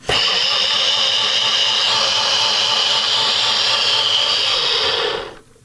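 A blender whirs loudly and steadily for about five seconds, a harsh high-pitched motor whine churning a smoothie, then cuts off abruptly. No one speaks over it.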